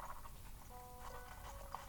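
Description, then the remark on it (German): Soft, steady clip-clop of the speaker's horse's hooves with a few sharper knocks, quiet, over a faint hum; a short breathy horse snort may sit among the steps. “Warum auch immer, mein Pferd hat sich hierher teleportiert.”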